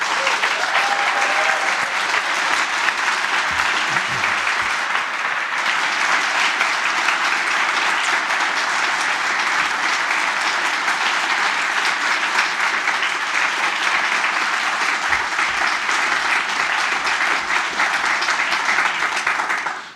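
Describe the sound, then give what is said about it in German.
Sustained, loud applause from a large audience at the Langer Atem award ceremony as the third prize is awarded, a dense even wash of many hands clapping that holds steady for the full twenty seconds with no speech over it. “Sie werden deshalb heute mit dem dritten Preis hier beim langen Atem ausgezeichnet. Applaus”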